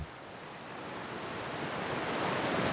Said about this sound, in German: Das ist jetzt der Rissbach, wie er eigentlich sitzt. Das ist ein mächtiger Zubringer zu der Isar. Da sieht man, das ist ein wildes Wasser ist das.